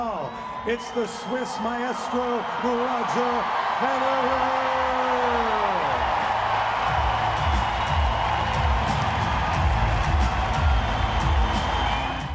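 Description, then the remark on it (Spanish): A tennis crowd gives Roger Federer a loud, sustained ovation on the day his tennis career ends, with long voiced whoops and shouts rising over a steady roar of cheering that carries on without a break. “La ovación que le dieron a Roger Federer jamás la he visto, jamás me ha dolido tanto el estómago como en este momento.”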